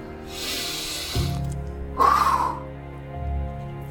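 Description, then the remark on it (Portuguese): A deep breath drawn in as a soft, airy hiss, then after a short pause let out in a fuller, breathy exhale with a slight whistling edge. No one speaks. “Tem que entrar e também tem que sair.”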